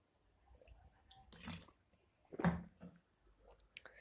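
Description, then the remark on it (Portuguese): Someone takes sips of water, with a couple of soft, wet gulps and swallows separated by brief pauses. The sounds are quiet and there is no talking. “Tô bebendo água para não morrer, por sinal.”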